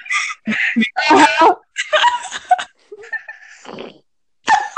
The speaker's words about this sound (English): what is the noise? oh my god! Who's farting? not me. Because that's not me, I swear.